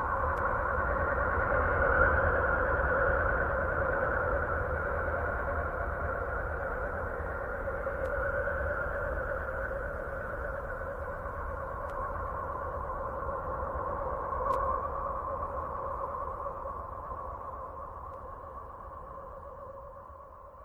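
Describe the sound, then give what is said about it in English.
Sonified radio emissions from Uranus, recorded by the Voyager spacecraft: an eerie, continuous drone of layered, hooting tones that waver gently over a low rumble, steady and fairly loud throughout, with no voices. “But its sound isn't constant. Its chorus shows us that Uranus is also a dynamic planet”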